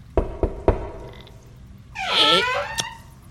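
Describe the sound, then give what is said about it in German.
Three sharp knocks on a door in quick, even succession, followed by a drawn-out creaking or whining sound and a final single knock-like tap. “Okay, dann klopfe ich an.”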